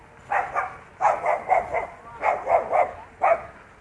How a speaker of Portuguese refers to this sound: Ó, mais cachorro histérico. Eu tentando controlar.